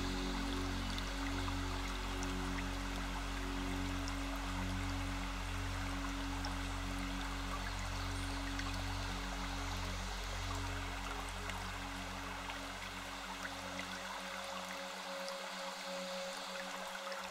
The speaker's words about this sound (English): It is flowing down a small stream.